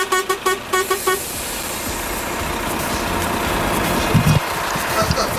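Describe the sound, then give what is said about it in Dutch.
A series of short, repeated horn toots sounds at the start, followed by a steady engine rumble of a bus pulling in as it arrives in Groningen, with brief louder bursts near the end. “De bus van NPO Radio 1 is aangekomen in Groningen.”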